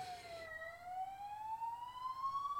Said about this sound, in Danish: Hvis jeg ikke hørte, der var politisirener.